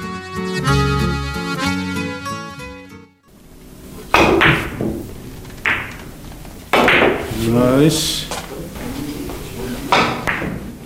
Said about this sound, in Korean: 당구공 굴러가는 경쾌한 소리가 나른한 오전을 깨웁니다.